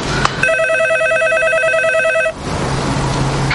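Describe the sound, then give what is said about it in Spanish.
A telephone rings with a steady electronic warble, a rapid trilling tone held for about two seconds, over a low background hum with no one speaking. “Que están llamando el teléfono.”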